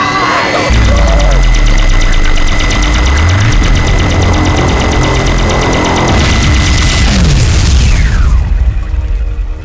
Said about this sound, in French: Qu'est-ce que t'as foutu Tu viens de péter le générateur de champ d'interdiction